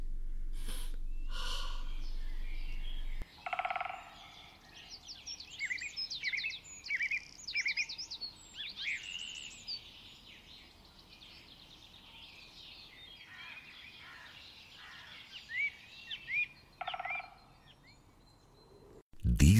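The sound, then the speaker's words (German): Forest ambience full of birdsong: many overlapping chirps, trills and whistles at high pitch, with a turkey-like gobbling call among them, over a soft steady background and no talking. “Und deshalb wäre jetzt eine Runde Waldgeräusch, ah, entspanntes ein Lauschen ein und an einen Wasserfall denken.”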